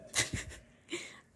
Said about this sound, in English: Pardon my cat.